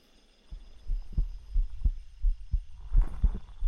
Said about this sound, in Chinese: 快把头。埋进我的胸口，能听到我的心跳吗？